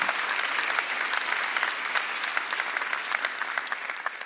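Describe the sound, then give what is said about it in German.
An audience claps steadily for several seconds, a dense, even wash of many hands with sharp individual claps popping through, fairly loud and without any voices over it. “Können wir ihm mal dafür einen mächtigen Applaus geben.”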